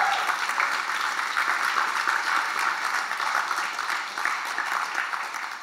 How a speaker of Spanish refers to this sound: Dale un fuerte aplauso a Dios por eso.